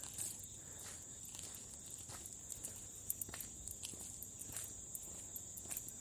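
A steady, high-pitched chorus of insects chirping in the grass hums without pause, joined by occasional soft rustles and light taps like footsteps. No one speaks.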